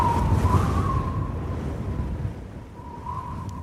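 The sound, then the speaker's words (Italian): Strong wind roars steadily over open sea, a dense low rumble with a faint whistling tone drifting through it, continuous and fairly loud with no voices. “Ho voluto farvi ascoltare il vento.”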